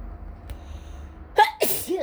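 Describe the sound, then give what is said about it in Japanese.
A single loud sneeze from hay fever bursts out after a second of quiet: a sharp intake, then an explosive, hissy burst trailing into a brief voiced tail. It stands alone, no talking over it. “出た花粉症でさもうすぐ春ですからてかこんな寒いのにまあまだ今冬なんですけどこんな寒いのにあれね、花粉症ってもう来てるんだね。”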